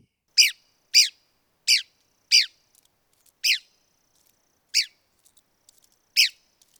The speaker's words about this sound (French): Son aire de répartition, c'est du sud-est des États-Unis. Ses habitats, les pinèdes clairs. Et comme à l'habitude, voici la voix de l'oiseau à l'honneur aujourd'hui.